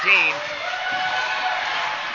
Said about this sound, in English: And what you heard there, what you heard there is uh, the crowd was just a little bit worried on that call, and we're not on the line, so we didn't get to see it.